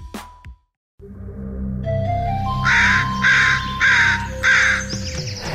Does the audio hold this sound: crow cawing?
yes